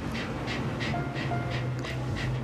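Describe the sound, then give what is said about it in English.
A hot female dog pants quickly and steadily, short breathy huffs repeating in an even rhythm about twice a second over a low background rumble. “my dog is hot, very hot. I, maybe you can hear her”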